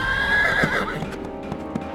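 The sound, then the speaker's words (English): A ridden colt lets out a loud whinny, then its galloping hooves strike the ground in a quick, steady rhythm with no voices, in a cold wind. “In fact, the rider spoke only to encourage his colt to go faster.”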